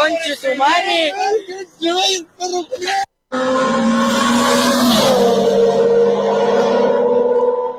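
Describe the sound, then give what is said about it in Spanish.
A dog in a played recording whimpers in several short, wavering high-pitched whines, then lets out one long, sustained whine that dips in pitch midway, loud throughout. “Este perro,”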